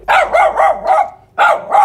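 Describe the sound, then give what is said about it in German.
A dog barks loudly and urgently in an alarmed volley of about six sharp, mid-pitched barks, with a short pause before the last two. No one speaks. “Je nach Situation fühle ich mich bedroht, bell ich laut, um Alarm zu schlagen.”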